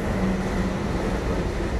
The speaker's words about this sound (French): Oui, il y a des trains ici. C'est peut-être un son que vous n'entendez pas souvent. Mais bon.